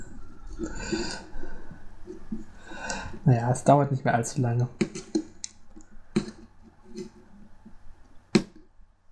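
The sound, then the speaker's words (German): Scraping and squelching of a pumpkin being carved, with a few sharp clicks and cuts near the end; a person speaks briefly partway through. “Nein, ich habe Spaß mit den Geräuschen, die dein Kürbis macht.”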